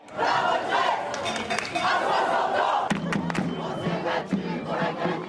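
A large protest crowd in France, in cities from Bordeaux to Strasbourg, shouting together in loud, rhythmic bursts, chanting slogans with a steady roar of voices and occasional sharp claps or thumps cutting through.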